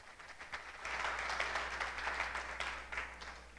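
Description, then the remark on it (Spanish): An audience breaks into sustained applause for the coming of the Holy Spirit in Christ Jesus, many hands clapping together in a dense wash that swells after a brief quiet start and holds steady, with no talking. “Démosle palmas a la venida del Espíritu Santo en Cristo Jesús.”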